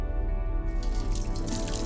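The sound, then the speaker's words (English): Water runs steadily from a tap, a continuous splashing pour that fills the whole moment, with a faint sustained musical tone underneath and no voices. “the gift of clean water.”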